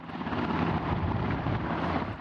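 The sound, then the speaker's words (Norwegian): A helicopter from the North Sea coming in to land at Stavanger Airport Sola. Its steady, droning engine and rotor noise fills the air, loud, with a broad rushing roar and no voices. “Nok et helikopter fra Nordsjøen inn for landing på Stavanger lufthavn Sola.”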